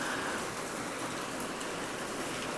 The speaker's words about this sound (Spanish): Y ahorita estaba pensando, y me inspiró muchísimo a grabar este episodio, la, la lluvia, porque hace unos momentos estaba pensando en salir a comer, comer afuera, y pues justo lo estaba pensando cuando se vino con todo la lluvia, pero con todo.